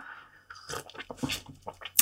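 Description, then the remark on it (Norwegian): Slurping as someone sips a Brazilian coffee called IP, a series of short, wet, noisy bursts over about two seconds, fairly loud, with no talking. “Jeg drikker kaffe i dag. Jeg skal prøve å ikke slurpe så mye for dere.”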